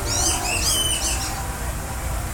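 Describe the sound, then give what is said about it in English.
A bird's whistling call of several quick, warbling notes rings out in the first second, then fades, while a steady low rumble of outdoor background noise continues underneath. “So that's the whistle. That's the whistle.”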